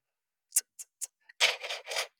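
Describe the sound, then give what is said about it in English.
A beatboxer imitates clicking with three sharp, bright clicks in quick succession, then a faint tick and a run of louder, raspy inhaled scrapes made with both sides of the back of the tongue, dry with no talking. “So you've got a and a, and then an inhale breath, both sides of the back of your tongue, like that.”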